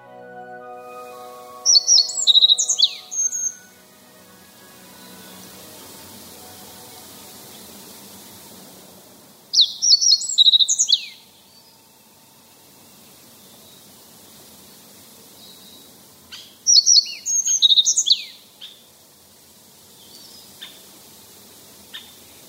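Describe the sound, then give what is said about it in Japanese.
Three short, bright twittering phrases of Japanese yellow bunting song from red pine treetops, spaced several seconds apart, then faint, brief tapping of a great spotted woodpecker drumming on a dead tree, in a company-managed forest in Nishigo Village, southern Fukushima Prefecture, Japan. No one speaks. “福島県南部にある西郷村製紙会社が管理する白川菓子の森があります赤松の梢で野じこが盛んにさえずっていましたしばらくすると赤ゲラがやってきて枯れ木を連続して叩くドラミングを始めました”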